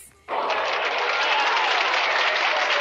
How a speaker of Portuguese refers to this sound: Palmas para os nossos ouvintes.